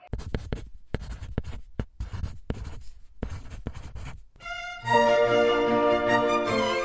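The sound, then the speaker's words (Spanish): A pen scratches out a signature in quick, irregular strokes for about four seconds, then a bright, tonal musical jingle comes in louder and plays to the end. “Firma por aquí, firma por aquí.”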